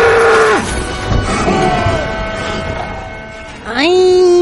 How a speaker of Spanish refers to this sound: pero qué placer volver a escuchar esta musiquina orca que sigue, ¿eh?